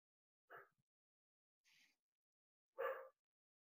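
A pet dog barks a couple of times, short sharp yaps spaced about two seconds apart, with a faint higher-pitched sound in between. No one is speaking.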